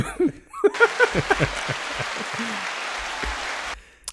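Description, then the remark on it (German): A burst of applause, a dense crackle of clapping lasting about three seconds before stopping abruptly, with laughter and chuckling on top of it near the start. “Applaus, Applaus.”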